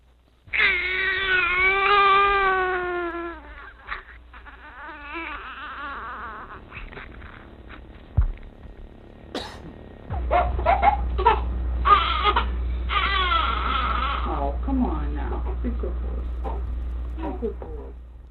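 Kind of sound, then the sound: human body sound, baby crying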